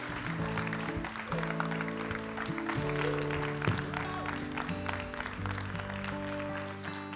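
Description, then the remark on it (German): An audience applauds steadily for several seconds to welcome a pastor, a dense wash of clapping that stays at an even volume while a tonal musical backing plays underneath. “Deswegen lade ich uns alle ein, sie mit dem dicksten 21 Applaus zu begrüßen.”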